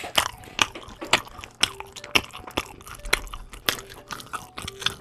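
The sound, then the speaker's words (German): Someone chews Pfälzer Saumagen, a stuffed pork stomach from the Palatinate, with steady, moist bites and soft crunches repeating about twice a second. No one speaks. “Ähm, das ist Pfälzer Saumagen.”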